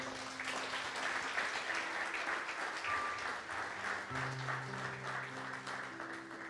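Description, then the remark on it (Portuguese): A church audience claps for Jesus steadily and densely for several seconds, a full room of applause filling the space, with low sustained organ or keyboard tones sounding underneath. “Dá uma bate-palma para Jesus só para a gente.”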